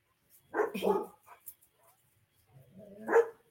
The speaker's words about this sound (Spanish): Mm, y aquí hay muchos perritos que están ladrando hoy porque se ponen nerviosos.